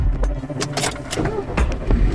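A car engine starts up close by, a short burst of cranking and clattering that settles into a steady low rumble, with a faint metallic jingle like keys.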